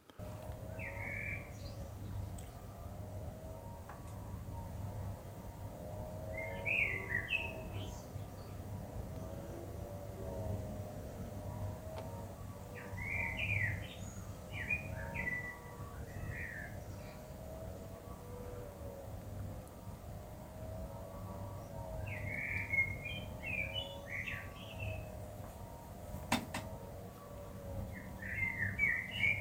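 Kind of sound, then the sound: bird, common blackbird song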